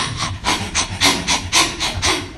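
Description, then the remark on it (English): A quick, steady run of about eight scratchy, brushing bursts, made to imitate running footsteps, fairly loud with no talking over it. “That's a running sound.”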